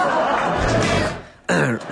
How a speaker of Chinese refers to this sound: 雾雾霾严重就咳嗽。